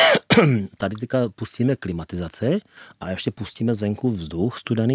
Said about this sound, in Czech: Co je první, co tě napadne ve tvé hlavě? On kašle, je tady klimatizace